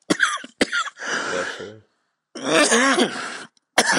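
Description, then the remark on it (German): A fit of coughing: two sharp, abrupt coughs, then longer rasping, throaty bouts with a strained voiced edge, a brief pause, and one more hard cough at the end. “Und jetzt habe ich Husten.”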